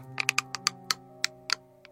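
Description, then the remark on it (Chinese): A person imitates the sound of teeth grinding with a quick, uneven series of about nine sharp, dry clicks and scrapes over a faint steady hum, fairly quiet, with no talking. “这是一种磨牙的声音”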